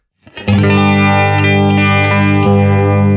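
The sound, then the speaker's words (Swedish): A sustained, distorted electric guitar chord played through a phaser pedal rings out loudly, its tone swept by a slow, swirling modulation effect that rises and falls in waves. No one speaks. “Jag, och det, 45an eh, har jag ju avfärdat som den fattigare kusinen till 90, men jag måste säga att det här är återupptäckte.”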